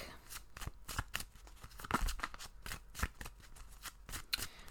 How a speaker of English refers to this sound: All right, people, let's pull a card, shall we? See what's going on this week.